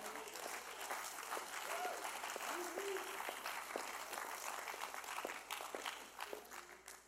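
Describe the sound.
Sustained audience applause, a dense steady wash of many hands clapping at a fairly even level for several seconds, with a few faint voices and whistle-like tones rising briefly over it.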